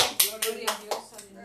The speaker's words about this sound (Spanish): Bueno, con esto. Un aplauso a nuestro Dios, Gloria